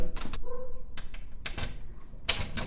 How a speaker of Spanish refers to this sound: Cada vez que yo salgo, hago lo siguiente. Cierro la puerta